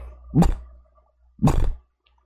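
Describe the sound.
A person imitates a dog's muffled, closed-mouth dream bark: two short, puffy, stifled woofs about a second apart, fairly loud against near silence.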